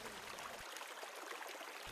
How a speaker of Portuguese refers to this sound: Aquela água que está saindo ali ó, é uma. vem direto da serra, já foi feito até o teste, é uma água, água, água mineral.